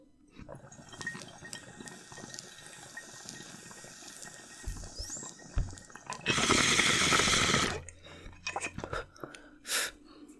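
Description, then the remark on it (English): A bong hit: a loud, steady burst of gurgling water bubbling during an inhale, lasting about a second and a half, with scattered small clicks and rustles before and after. No one speaks. “All right, I'm gonna hit the rest of this bong here, and then we're gonna we're gonna have to say goodbye, guys.”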